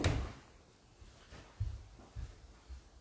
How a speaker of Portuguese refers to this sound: Eu vou abrir a porta então, né? Vou abrir a porta pro Duquinho, porque ele está lá arranhando a porta, né, Duque?